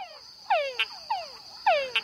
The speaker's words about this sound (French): au Panama, dans la réserve naturelle de l'île Barro Colorado, c'est le pouvoir de séduction du chant de troubadour d'une grenouille qu'un chercheur Michael Ryan étudie depuis 40 ans. Une petite grenouille, la grenouille Tungara du Panama.